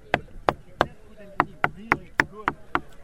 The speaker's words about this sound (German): Der junge Physiker klopft freudig auf sein Arbeitsgerät bzw. eines von 1600. Hier hinter uns haben wir einen wunderschönen wasser cherenkov tank Das hat eine Ausdehnung von 6 Metern in der Breite, Höhe 1,20 Meter und 12 Tonnen Wasser sind da drin.